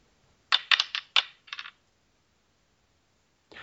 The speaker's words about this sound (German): Bitte mal würfeln. Du, ich, ich schüttel dann das Spielgerät, ja? Und ich meine den Würfel damit.